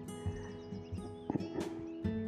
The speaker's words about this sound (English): And I hope you're picking up a lot of this bird song around me. We've managed to identify the black cap. I did not know about that bird. The Eurasian black cap.